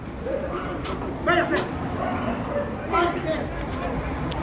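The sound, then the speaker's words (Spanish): A dog barks in a few short bursts, two clustered early and another pair later, over a steady background of crowd chatter and noise, as someone threatens to set the dog on the speaker. “Me está amenazando con lanzarme el perro.”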